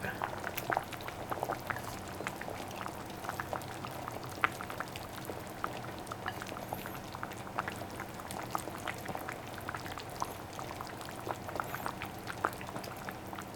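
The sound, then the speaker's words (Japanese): A pot of broth simmers steadily, with dense bubbling and small liquid pops and splashes throughout, as slices of pork are swished shabu-shabu style through the hot liquid; faint voices murmur underneath at times. “じゃあそろそろ行きますかねはい豚肉を豚肉しゃぶしゃぶして”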